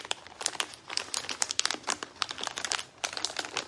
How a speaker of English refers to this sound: You will have a tremendous amount of snacks, and she might be opening them while you're trying to sleep, and you'll just hear plastic just. If you don't mind falling asleep to this sound, all night.